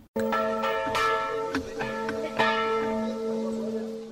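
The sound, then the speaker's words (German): Church bells ring out in a rich, overlapping peal, with fresh strikes landing every half second or so over a long, sustained hum of resonance. No one speaks. “Wann diese Kirchenglocken im Zweiten Weltkrieg abmontiert wurden, ist nicht bekannt.”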